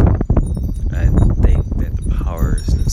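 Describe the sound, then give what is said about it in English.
Steady wind rumbles and buffets against a phone microphone on a windy Thursday night in California while faint metallic wind chimes tinkle high above it, with some indistinct voice-like sounds mixed into the gusts. “And as you guys can hear the wind in the background blowing through the phone with the wind chimes and things”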